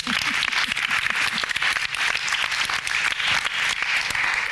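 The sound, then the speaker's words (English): An audience breaks into applause, a dense, steady crackle of many hands clapping at once that holds at an even, fairly loud level for several seconds. “Sorry, give her a round of applause anyway.”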